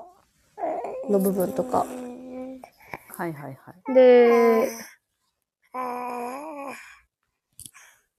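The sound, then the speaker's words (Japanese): A young boy babbles and vocalizes in the background, a loud high-pitched burst partway through, while adults talk in short phrases around it. “すいません、これちょっと子供の声が入ってる。”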